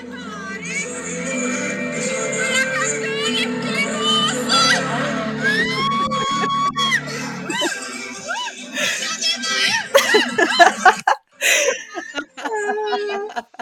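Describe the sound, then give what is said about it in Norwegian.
A loud, dense concert crowd roars with music underneath, while one person shouts and whoops repeatedly over the noise, rising to sharp yells near the end. “Det er ikke jeg som roper sånn i bakgrunnen, bare så det er sagt.”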